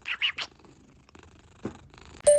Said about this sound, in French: je travaille avec Code Code qui ronronne sur mes genoux